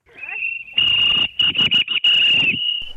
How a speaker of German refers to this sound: Auch durchs Telefon ist das Pfeifen zu hören. Knapp 50 Personen streiken im sächsischen Merane vor der Halle eines Pharmagroßhändlers. Sie gehen für mehr Geld auf die Straße, denn seit Monaten stocken die Tarifverhandlungen im Handel.